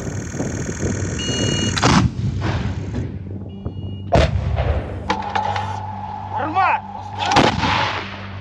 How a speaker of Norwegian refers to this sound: ikke hver eh, eksplosjon som varsler dårlig nytt, for man hører også lyden av utgående altså utgående artilleri som viser at eh, noen kilometer unna så står ukrainske soldater og kjemper imot.